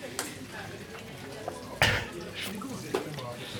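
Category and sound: household object, water being poured out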